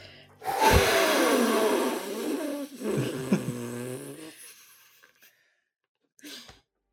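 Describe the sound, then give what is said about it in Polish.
Four voices imitate blowing on dandelions, blowing hard in a long, breathy whoosh, partly voiced, then a second gust trails off, and a short puff follows after a pause, fairly loud. “Dmuchawce lecą i wraz z nimi te cztery oddechy wzmagają się i zmieniają się w cztery wichry.”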